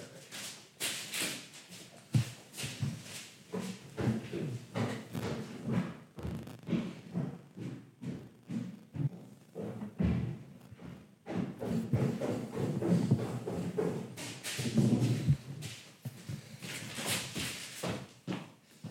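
Crunching footsteps across a kitchen floor covered in brown paper: a steady run of irregular, crackly steps and rustles lasting the whole stretch, fairly loud, with no talking.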